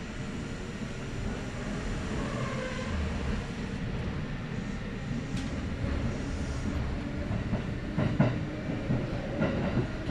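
A Kintetsu Nagoya Line local commuter train, running from Kintetsu-Nagoya toward Kanie, rolls steadily along the rails, a continuous low rumble with faint rhythmic clacks and occasional squeaks and rattles from the carriage, heard from inside.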